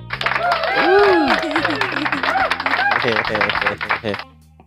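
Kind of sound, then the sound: crowd, clapping hands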